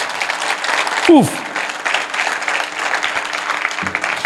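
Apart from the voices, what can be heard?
audience applauding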